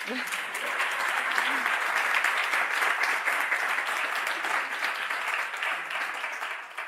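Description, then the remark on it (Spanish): Sustained audience applause, a dense wash of many hands clapping at steady loudness throughout, tapering slightly at the very end. “Podéis aplaudir.”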